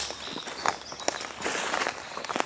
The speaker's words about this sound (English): And the crunch of leaves and twigs under my feet.